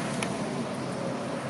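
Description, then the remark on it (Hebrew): A steady, dense wash of city traffic noise in central Tel Aviv, heard from a bus stop, with no breaks, many cars rumbling past continuously at moderate volume, with no voices. “אני עכשיו בלב תל אביב, אמ, יושבת בתחנת אוטובוס, אני לא יודעת אם שומעים, אבל יש מאחוריי, מלבד המון מכוניות, גם אזעקה עולה ויורדת.”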